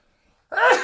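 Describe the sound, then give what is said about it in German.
A single sudden sneeze bursts out after a moment of silence, fairly loud, with a sharp breathy onset that quickly tails off. “Gesundheit.”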